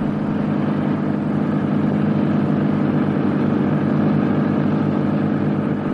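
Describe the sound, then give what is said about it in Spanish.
A cash transport truck drives along a road, its engine giving a steady, continuous low rumble with road noise that holds at an even, fairly loud level throughout. “Más tarde, un camión de transporte de dinero circula por una carretera.”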